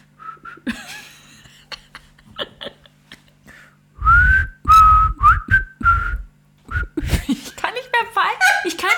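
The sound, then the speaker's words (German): Someone whistles a short, halting melody, the notes breaking off repeatedly between breathy bursts of laughter and sputtering as the tune falters and restarts. “Warte, warte, warte, ich muss was anderes pfeifen.”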